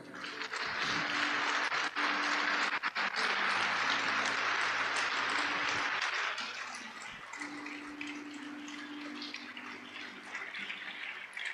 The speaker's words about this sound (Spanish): Dele un aplauso a Él.